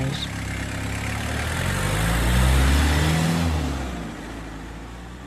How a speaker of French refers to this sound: Et il est allé sortir la camionnette du garage.